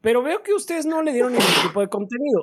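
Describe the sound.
A single loud sneeze bursts out in the middle of a man's ongoing speech, briefly cutting through his talking before he carries on.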